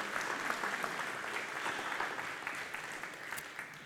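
Steady applause from an audience, a dense wash of many hands clapping at an even level throughout, with no voices standing out above it.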